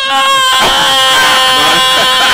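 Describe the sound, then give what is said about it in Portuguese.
A voice imitates the loud crying of a five-year-old child who has bumped his head on the floor and is looking for his mother, a sustained high, strained wail that rises and wavers in bursts, loud throughout. “Aí a mãe do outro lado fala é. assim: engora o choro.”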